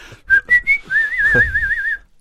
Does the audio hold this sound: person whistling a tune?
yes